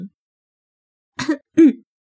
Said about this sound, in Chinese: 我心虚的咳嗽了两声，给自己找借口。